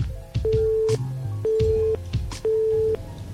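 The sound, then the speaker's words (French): Three steady, evenly spaced telephone beeps, each about half a second long, as a phone line signals that the call has dropped, with muffled low background noise in between. “sonnerie, elle, elle, dit pas quelque chose de très très concluant. Peut-être que c'est du morse.”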